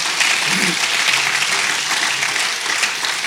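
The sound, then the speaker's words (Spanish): An audience applauds the Lord steadily, a dense wash of many hands clapping at an even, fairly loud level throughout, with a faint voice briefly audible beneath it. “Alguien dele un aplauso al Señor en esta hora.”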